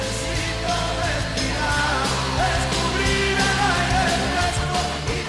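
A full-band song plays steadily and loudly throughout, with dense instrumentation and sustained melodic lines, and no one talks over it.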